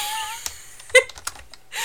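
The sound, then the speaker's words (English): A handful of irregular clicks and clacks on a computer keyboard, fairly quiet, as keys are pressed haphazardly with uneven gaps between them while someone tries to turn the keyboard off. “she just turned my keyboard off.”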